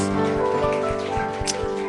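A church audience applauds for the Lord Jesus in a dense, steady wash of clapping, with sustained musical tones held underneath and a regular low thump pulsing roughly four times a second.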